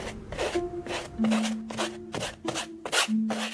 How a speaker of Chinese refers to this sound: 这是画刀将颜料抹在画布上的声音。起初，笔触很慢，很沉，到最后变得越来越快，也越来越急。这个声音永远定格在1890年7月的法国北部的奥维小镇。